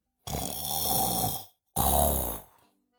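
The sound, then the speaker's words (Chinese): Two long, loud snores from a little pig asleep on the floor during a class, each a rough, rattling rumble lasting over a second, with a short pause between them and no talking. “他打呼噜的声音很响”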